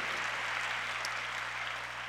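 An audience claps their hands in thanksgiving to God ahead of three people being baptized for the remission of their sins, a dense, steady wash of applause that holds evenly for about two seconds, with a faint low hum underneath and no voices.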